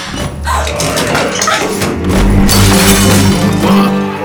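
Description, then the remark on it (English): A candle knocked down from a chandelier: a loud, jumbled clatter with a brief breaking, shattering edge, set against a dense, noisy wash and low sustained tones, with no one speaking. “Hmm candle? Those from the chandelier up there. See it swinging? Well, do you suppose knocked it down?”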